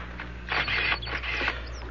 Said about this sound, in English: Mind if I take a picture of it? Not at all.